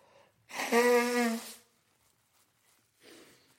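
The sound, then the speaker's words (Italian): A single nose blow, a loud honking, buzzy burst about a second long, followed after a pause by a fainter breathy sniff. “e mo mi soffio pure il naso se non starnutisco nel microfono.”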